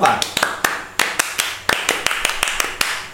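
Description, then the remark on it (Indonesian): A short round of hand clapping: a dozen or so sharp, crisp claps at an uneven, brisk pace, fairly loud, lasting about three seconds. “kita beri tepuk kan”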